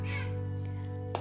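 Male cats play-fighting roughly: a cat's yowling cry rises and wavers in the background, fairly faint, followed by a brief sharp squeal at the end, over a steady low hum.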